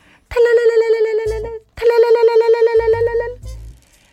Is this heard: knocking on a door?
no